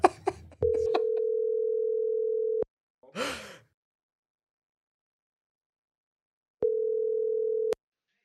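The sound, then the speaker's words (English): A steady, loud telephone tone of an incoming call from a guest calling in sounds for about two seconds, breaks for a brief breathy noise, then resumes after a long silence for another second, cutting off abruptly each time. “He's not videoing in, he is calling in.”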